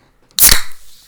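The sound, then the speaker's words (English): A seltzer can is cracked open: one sharp, loud pop followed by a short burst of fizzing hiss that quickly fades, with no talking. “So shall we crack the seltzers?”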